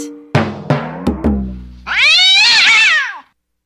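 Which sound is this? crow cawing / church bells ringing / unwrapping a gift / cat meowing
cat meowing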